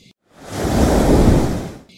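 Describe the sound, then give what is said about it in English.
A single rushing whoosh of water swells up, surges loudly for about a second and a half, then fades away, as a strong underwater current sweeps around a bend. No voices. “Before Lightfin could say another word, the current took them whooshing around the bend”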